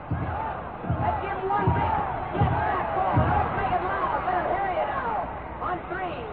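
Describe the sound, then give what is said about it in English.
The Wisconsin Badgers cheering section in a large stadium crowd at a football game against Southern California howls a rhythmic chant of "go, go, go", heavy repeated beats landing about once a second at first before dissolving into a sustained, loud wash of cheering. “And the Badger cheering section sets up the howl of go, go, go.”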